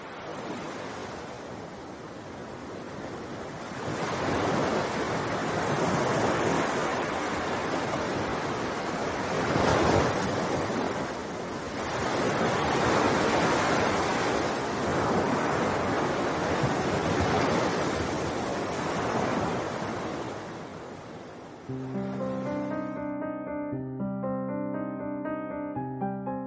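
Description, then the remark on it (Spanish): Ocean surf on a South American coast lined with dunes rolls in steady, loud swells with a rushing wind over it, each wave building and breaking in turn; near the end the roar cuts off and soft music takes over. “Allí, un desvencijado faro azotado por los cuatro vientos es el vigilante de esas historias que trajo el mar.”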